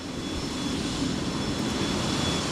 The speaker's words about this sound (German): Dann stehen wir vor der Papiermaschine 4. Der Eindruck ist überwältigend. Die Maschine haushoch, vielleicht 50 Meter lang. Im Innern dreht sich eine gewaltige Walze. Wasser fließt sturzbachartig in Sammelbehälter